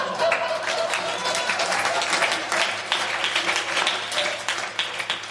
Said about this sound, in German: Denn hört einmal, wie ein Publikum so klingen kann nach einer fein erzählten Geschichte.